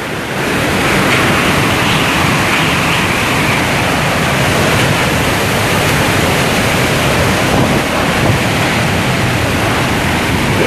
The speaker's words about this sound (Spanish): Estoy justo al lado de la puerta hacia la casa Estoy totalmente protegido bajo techo, pero el viento lo siento, la puerta eh, vibra. Y el viento es un viento totalmente feroz y con lluvia.